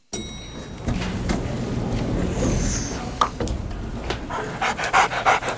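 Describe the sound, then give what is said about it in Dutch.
An aggressive dog, with two women, pants heavily in a lift, quick rasping breaths repeating steadily, growing more rhythmic and pronounced toward the end, with no one speaking. “Hij is bang voor honden en eh, twee dames met een agressieve hond staan ook in die lift.”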